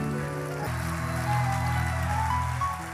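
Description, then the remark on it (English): An audience claps together in praise of the Lord in a dense, steady wash of applause, with sustained organ-like chords playing underneath for the full few seconds. “Give the Lord a mighty hand clap of praise.”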